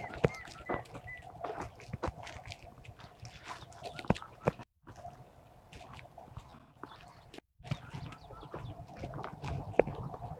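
An Indian cuckoo calls amid a busy outdoor chorus of birdsong, with chickens clucking and sharp chirps scattered throughout. Nobody speaks.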